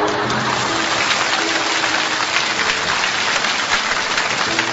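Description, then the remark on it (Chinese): Steady audience applause during a speaker's talk, a dense crackle of many hands clapping that holds at an even, fairly loud level for the whole stretch without fading, with faint voices underneath. “大家不要鼓掌，我我的脑子又结尾了，我还有半分钟就结束了。”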